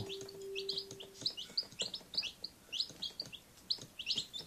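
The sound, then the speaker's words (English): Baby chicks peeping in a steady flurry of high, short chirps, many overlapping calls, with a faint low hum underneath at the start. “Did you say baby chicks?”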